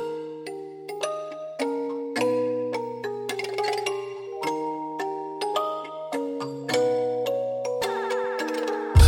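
An instrumental song intro plays: a steady, chiming melody of bright bell-like plucked notes over low sustained bass tones, clear and close, with no voices yet.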